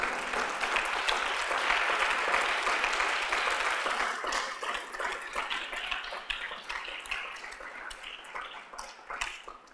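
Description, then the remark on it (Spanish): An audience applauds to the Lord during a church service in a dense, steady wash of clapping that holds strong for about four seconds, then thins into looser, more scattered claps as it gradually tapers off. “Dele un aplauso al Señor, hermano amado.”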